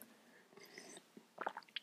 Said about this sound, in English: But I just had to get a quick sip of coffee out of my brand new AG Cup Foundations Stocks Cup. It's amazing.